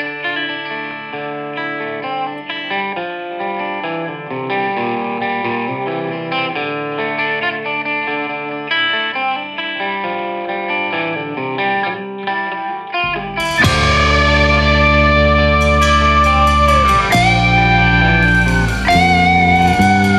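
The intro of a band's EP opening track opens with a clean, chorus-tinged guitar riff, then about halfway through bursts into full band with heavy distorted guitars, bass and crashing cymbals, loud and driving, no vocals.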